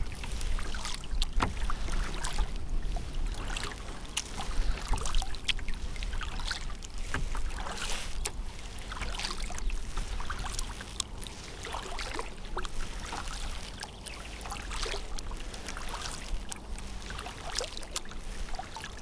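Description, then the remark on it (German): A canoe paddle dips and pulls through lake water in a steady rhythm, heading toward flat rocks that rise from the water between the shore and a forest of dark fir trees. Each stroke is a soft splash and swirl over a constant low rumble of wind and water. No one speaks. “Paddel ich dorthin und setze mich ein wenig auf die Steine,”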